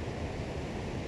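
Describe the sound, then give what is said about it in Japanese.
Steady, dense roar of a local river swollen after a recent typhoon, its high water rushing past with strong force on a sunny day, heard from the riverbank; a broad continuous whoosh of fast-moving water close by with no pauses or distinct splashes. “水量がですね、多くなってて勢いも強いんで、なんかこういう音好きなんで自然のノイズ音っていうんですか”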